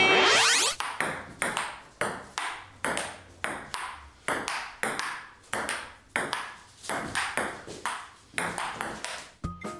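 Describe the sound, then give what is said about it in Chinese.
A table tennis rally: a steady run of about two dozen crisp, bright ball taps bouncing back and forth between paddles and table, each with a short ringing decay, with no voices. “哇，真的耶，好有趣哦，应该是一种球类运动哦。 双方选手呢，拿着球拍，然后在架有球网的桌子上面打球，球会这样弹过来弹过去。”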